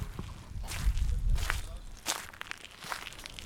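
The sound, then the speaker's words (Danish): Footsteps walking into a greenhouse in Bejtskov near Vejle, Denmark: about seven crunchy, scuffing steps at an even walking pace over a low rumble, with no talking. “Så går vi ind i drivhuset.”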